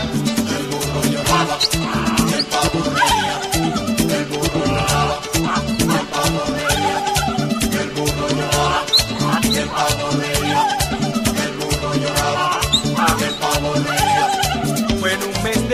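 A lively Spanish-language song about a farm turkey that mocks a hard-working donkey plays loud and steady throughout, driven by a busy, regular percussion beat under layered melodic instruments, with no talking over it.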